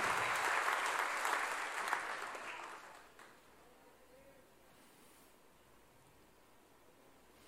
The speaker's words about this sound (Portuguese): Quem recebe esta palavra? Aplauda, aplauda, aplauda o Senhor. Aplauda-o.